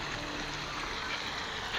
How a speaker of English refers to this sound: The sound is being created by the functional looking fountains outside the council house.